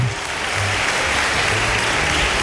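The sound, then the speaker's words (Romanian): Steady applause from a group, a dense crackle of many hands clapping at an even loudness throughout, with no voices on top; applause for the courage of deputies who admitted they do not understand the finance minister. “Aplauze lor pentru curaj. Aplauze, aplauze.”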